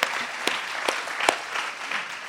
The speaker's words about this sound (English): So, let's give ARC a hand this morning, what God's doing through it